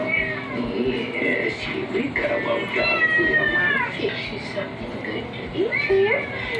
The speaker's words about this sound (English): I love the classic cat meow scene, you know, the they use the same cat voice for every for, for every cat on TV. The same cat voice. like, now can't y'all switch up the cat voice? I heard some deep voice cats, you know?